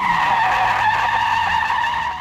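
A loud, sustained tire screech from hard braking, a steady high squeal lasting about two seconds with a low engine rumble beneath, easing slightly at the very end. No one speaks.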